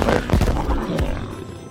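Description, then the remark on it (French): A loud, crackling magic plasma lightning blast cast at an escaped giant magic cat, with two sharp bursts close together followed by a rumbling, fizzing tail that slowly fades, with no talking. “Foudre magique du plasma Boum”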